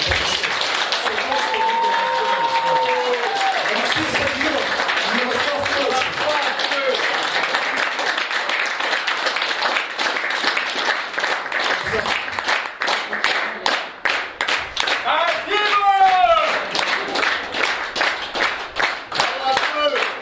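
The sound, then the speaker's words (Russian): A crowd applauds two guests steadily for about twenty seconds, a dense wash of many hands clapping, with occasional cheers and raised voices rising over it before it thins into scattered sharper claps. “Охота с ними поговорить изначально, но так как я ведущий, давайте просто покажем своими аплодисментами, как мы рады и как нам действительно...”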